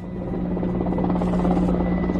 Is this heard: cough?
no